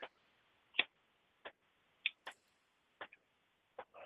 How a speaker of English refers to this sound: I'm listening to the remnants of a storm that just came through. It was it dumped. Oh, that's water. Rain.